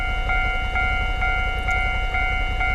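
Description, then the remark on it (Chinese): A train rolls past with a loud, steady low rumble and a high metallic whine, while wheel clacks repeat at a regular beat about twice a second. No one speaks. “你像遇到刚刚开场那种火车来，或现在等火车，这个人在重录就没有了，所以这非常重要。”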